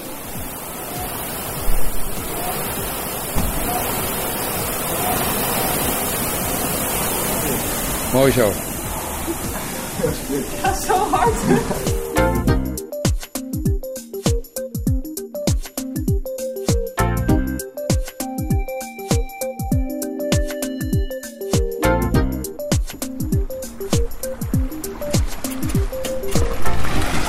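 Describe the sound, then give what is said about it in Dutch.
A rowing machine's flywheel, which gives resistance as a handle on a chain is pulled and the seat rolls back and forth, whirs in a loud, surging whoosh with a rattling chain, then fades behind talk as people speak over lighter clicking and movement. “Je trekt aan een, ja, een handvat met een ketting of een band. En het vliegwiel dat geeft de weerstand die je normaal in het water voelt.”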